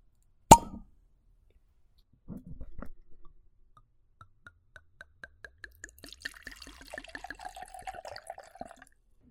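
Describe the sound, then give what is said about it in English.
A sharp cork pop, then a short rustle, followed by a rhythmic series of glugs as white wine pours from a bottle, the liquid gurgling and rising in pitch as the glass fills. Clear. “Let's pop open this bottle.”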